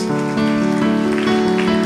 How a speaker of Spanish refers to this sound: Puede darle un aplauso al Rey de Reyes.